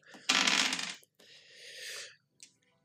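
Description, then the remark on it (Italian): A loud clattering burst as two six-sided dice hit a hard surface, then a softer rattling roll that fades out, ending with one small click. No voices. “Due dadi sei, allora.”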